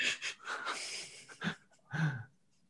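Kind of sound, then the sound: vocal imitation, imitated gasp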